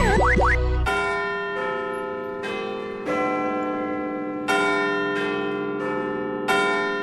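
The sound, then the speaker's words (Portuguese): The Big Ben bell in the Clock Tower of the Houses of Parliament (Palace of Westminster) rings out a slow chiming tune, each loud, resonant stroke overlapping the hum of the last, after a brief warbling, swooping tone at the very start. “A 31 de maio de 1859, ouviu-se pela primeira vez o sino da Torre do Relógio nas casas do Parlamento.”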